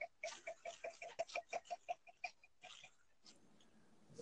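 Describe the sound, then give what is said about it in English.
Whiskey poured from a freshly uncorked bottle into a glass, about a dozen quick, rhythmic glugs trailing off into a soft, steady trickle of liquid. “Okay, hopefully we caught the audio on that pour.”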